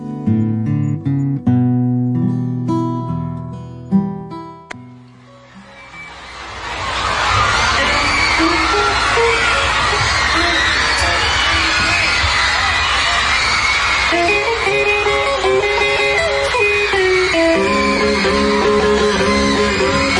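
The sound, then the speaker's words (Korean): Live concert recording from a show in Washington DC: a few seconds of sustained instrument tones, then a loud, constant roar of a cheering, screaming crowd that nearly buries the band playing underneath. “그때 그 장면을 한번 연상하시면서 와싱턴 DC 공연의 그 실황을 들어보실까요?”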